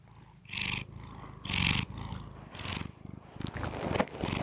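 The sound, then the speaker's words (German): A cat lying on a person's lap and belly purrs, a steady rumbling vibration that swells in rhythmic breaths, each inhale and exhale rising and falling in strength, with no voices present. “Ich habe jetzt eine Muschi auf dem Schritt. Also, ne? Eine lockige Muschel, Muschi auf dem Bauch. Vibriert.”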